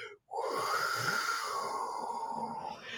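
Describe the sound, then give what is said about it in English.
A breathy, sustained whistling howl like the howling wind sound effect of old animation, most likely a voice imitating it, rising after a brief pause and holding steady for a few seconds. “Um, and it has like the great animation, the old animation sound of howling wind is mm-hmm.”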